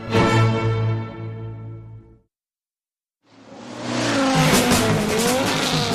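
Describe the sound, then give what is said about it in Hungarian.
A rally race car for the Jazzy 10 Legend Rally in Budapest: its engine drones on a steady, buzzing tone that fades out, then after a brief silence comes back loud and harsh with squealing tires and a rising roar. “Üljön kormány mögé május 27-én, és ünnepelje egy legendás autóverseny résztvevőjeként a Jazzy Rádió 10 éves születésnapját.”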